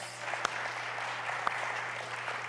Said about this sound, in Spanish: Bienvenidos, qué bueno que están aquí con nosotros en esta Mañana denle el aplauso fuerte a Dios.